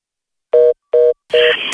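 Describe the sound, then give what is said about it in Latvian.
Two short electronic telephone beeps spaced evenly apart, then a third tone swelling into a brighter, busier burst of music: a radio call-in show's signal jingle, played loudly on its own before listeners' calls are taken. “Tad sāksim drīzumā uzklausīt uh, cilvēku zvanus, bet vispirms mūsu signāls jāpalaiž.”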